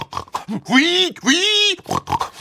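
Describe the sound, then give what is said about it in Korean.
A voice imitates a pig in a pigsty, startled when a lamp falls to the floor, giving two drawn-out, rising-and-falling squeals framed by short grunting snorts, loud, with nothing else around them. “바로 옆에 있던 돼지 한 마리가 놀라 날뛰더니”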